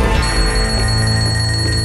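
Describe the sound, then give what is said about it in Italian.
A telephone rings loudly and continuously, a bright, metallic bell ring with no pause, alone without any talking. “Sherlock, Sherlock, il telefono strilla!”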